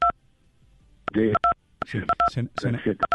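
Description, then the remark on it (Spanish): Short electronic keypad beeps as buttons are pressed on a mobile phone during a phone call, several quick two-tone presses scattered irregularly, cutting in and out over a person talking and interrupting the call. “Es que debe estarle usted oprimiendo los botones a su teléfono celular y se está interrumpiendo, ah, se está interrumpiendo la llamada.”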